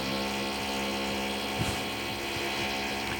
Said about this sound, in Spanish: ¿Qué es eso? Eso es un taladro.